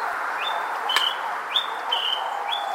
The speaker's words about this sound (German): Unser Vogel der Woche, der schräge, große Honiganzeiger.